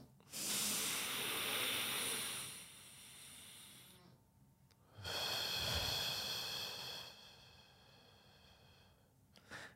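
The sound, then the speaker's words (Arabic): A demonstration of two long, deep belly breaths: a drawn-out airy inhale lasting a few seconds, filling the belly like a balloon and then the chest, a short pause, then an equally long, hissing exhale that slowly fades. No one speaks. “اللي صار هلا نفخ اول شيء البالون وبعدين بيطلع النفس واخر شيء آه، بيعبي الصدر اوكي ولما بطلع النفس من الجسم بتصير العمليه عكسيه البطن بفوت لجوا لما البطن بيفوت لجوا بيطلع النفس”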